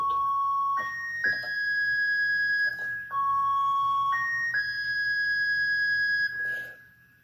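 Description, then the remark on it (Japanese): A short melody of high, sustained notes on a keyboard, played to convey "I love you", stepping upward through a few pitches and then repeated once, clear with no voices. “それを I love you という風にわかるように鍵盤を弾くとしたら、どうも、かどうから始ちょっと高い音を使いたいなと思ったんで、これかなと思って。”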